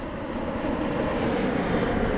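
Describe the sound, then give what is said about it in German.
A steady, broad engine roar like an airplane passing overhead, constant in loudness throughout with no voices over it. “Also ein Flugzeug, das ist mir drüben.”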